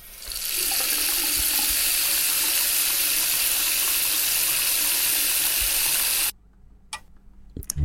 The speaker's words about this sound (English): that is a running tap or running faucet, if you would like the technical term for a tap, a faucet.